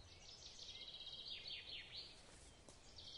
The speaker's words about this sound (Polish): i w związku z tym odgłosy lasu, jakie słyszycie w tle, są podłożone, a ja nagrywam w swojej szafie.